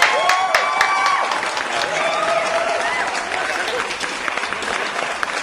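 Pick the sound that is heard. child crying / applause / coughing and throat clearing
applause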